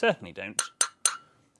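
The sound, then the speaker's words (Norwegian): A teaspoon clinks against a cup of tea three times while stirring, bright, ringing taps about a quarter second apart, following a short murmur of voice; the last chime fades out slowly. “Følg urskiva fra seks til tolv. Beste måten også å løse opp sukkeret på, og aldri, aldri slå skjea mot koppekanten etterpå.”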